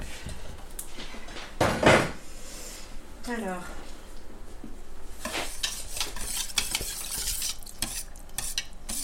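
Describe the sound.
Whisking of a thick soap paste in a bowl with a whisk, with scraping, uneven strokes against the sides and a brief louder clatter early on, while a voice is faintly heard at moments.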